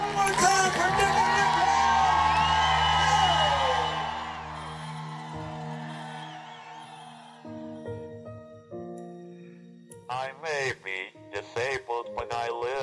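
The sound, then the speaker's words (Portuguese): A loud, euphoric crowd cheers and shouts for several seconds as triathletes cross the finish line, fading into a steady hum before an announcer's voice begins announcing their arrival. “A multidão lá toda eufórica, o barulho e o locutor anunciando a nossa chegada.”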